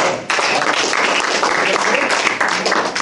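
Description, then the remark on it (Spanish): A crowd applauds for all those present, dense steady clapping that starts abruptly and stays loud and continuous for about three seconds, with a few dips in intensity. “aplauso para todos ustedes.”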